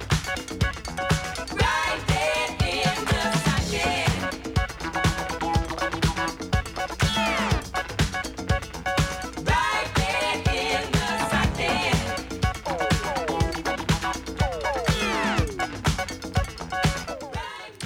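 An instrumental break from a funk disco track plays steadily, with a driving, evenly pulsing beat and layered melodic lines, loud and continuous with no voices.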